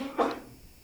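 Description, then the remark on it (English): A single short sneeze, a quick breathy burst that fades out fast, with nothing else but faint background hush around it. “bless you.”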